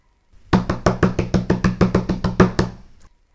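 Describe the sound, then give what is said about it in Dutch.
Hands pat rapidly and steadily on a table, about fifteen loud thumps in a quick even rhythm, mimicking a downpour of heavy rain. No one speaks. “En tik nu met je handen op de tafel of op de grond.”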